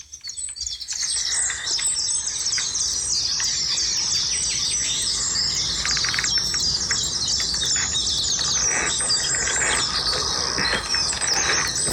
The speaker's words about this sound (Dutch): Gekraak, gekraakt zijn mijn schoenen. Dat maakt nog best kabaal, die natuur, zeg. Dit is ochtends vroeg om uh, eh, 8 uur. En wat je hoort zijn eh, koolmezen.